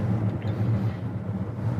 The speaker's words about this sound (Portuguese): Pelo carro ser, ser híbrido, ele ele passa uma sensação de resposta melhor do acelerador que você que é típica dos motores 4 cilindros turbo, aquele lag, ele é, fica bem menos perceptível devido ao auxílio da, do, do motor elétrico.